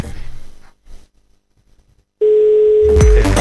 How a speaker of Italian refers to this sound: sta squillando, sta squillando.